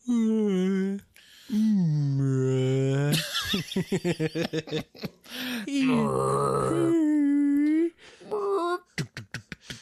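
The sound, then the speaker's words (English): A voice imitates a movie monster's moaning with long, low, wavering groans that rise and fall in pitch, broken up by bursts of choppy laughter between them. “You get a lot of monster sounds.”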